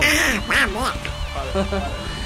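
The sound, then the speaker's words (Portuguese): A voice does a raspy, garbled Donald Duck impression, squawking a quick run of quacking syllables for about two seconds. “O Pato Donald hoje tá revoltado, velho. Tá bolado aqui, velho.”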